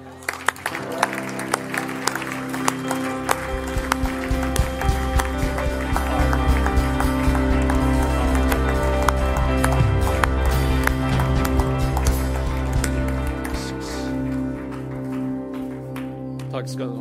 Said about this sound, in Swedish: Vår kung, vår min pappa, vår far är värd en större applåd här.